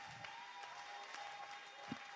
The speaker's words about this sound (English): come on, somebody, clap your hand.